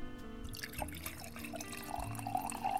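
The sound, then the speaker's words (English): Pinot wine pours into a glass in a steady, gurgling stream for a few seconds, its bright splashing rising slightly in pitch as the glass fills. No one speaks. “A glass of Pinot for you, wife.”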